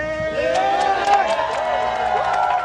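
An excited crowd yells and whoops in celebration of a victory as a plant occupation ends, overlapping voices rising and falling, with scattered claps cutting through for a few seconds at a steady, lively loudness.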